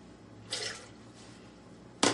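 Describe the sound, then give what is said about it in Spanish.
A small amount of water, less than a quarter of a glass, is poured into a blender to grind tomatoes: a brief splash, a quieter trickle, then another short, sharper splash at the end, with no talking. “Yo lo voy a moler con muy poquita agua, mira. ¿Cuánto es del vaso? Como menos de un cuarto del vaso.”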